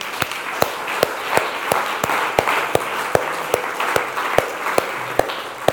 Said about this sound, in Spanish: Denle un aplauso a Dios.